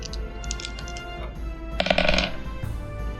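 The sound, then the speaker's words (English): Dice are rolled for a persuasion check, rattling and clattering across a tabletop in a brief burst of hard clicks, preceded by a few lighter taps, with no one speaking. “Dice don't fail me now.”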